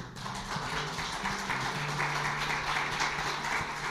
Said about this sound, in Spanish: Dame un aplauso por nuestro pastor.